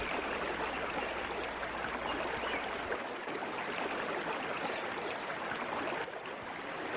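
River water rushes steadily, a dense continuous wash of flowing, splashing sound that stays even throughout, with a faint low rumble underneath early on and no voices.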